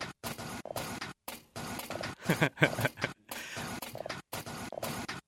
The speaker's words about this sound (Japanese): これコピー機の音なんですよでこれにですねさっきのあのー、中井さんの自転車の音がハイハットみたいに入ってきます